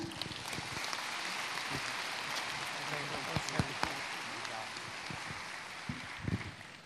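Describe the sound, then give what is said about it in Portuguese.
A church audience applauds steadily for about seven seconds in honour of those whose legacy is the church, a dense, even patter of many hands clapping with a few sharper, louder claps standing out near the end. “Podemos aplaudi-los também, né?”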